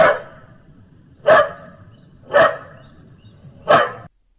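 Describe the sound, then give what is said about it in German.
A talking speaker box makes the sound of a dog barking four times when asked what a dog says. The barks come in a steady, evenly spaced series, each loud and sharp, with a quiet pause between them and no other sounds. “Wenn man zum Beispiel gesagt hat, wie macht ein Hund? Der Hund macht.”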